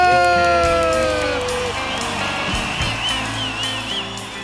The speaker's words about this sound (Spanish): Recibamos con un aplauso a Kendra Flores García.